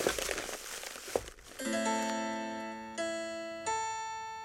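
Someone rummages through a box looking for an old wax candle, with a burst of dry crinkling and rustling, then sustained organ-like chords swell in, shifting twice and ringing on steadily.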